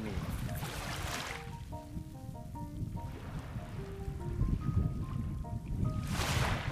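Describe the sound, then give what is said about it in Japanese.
Ocean waves wash onto a coral shore in Okinawa in three rolling surges, fairly loud, with bright clinking and tinkling of coral fragments tumbling in the backwash between them. “海辺に来ました聞こえますかこの波の音聞こえます沖縄の”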